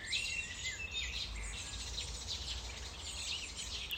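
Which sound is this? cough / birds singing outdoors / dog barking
birds singing outdoors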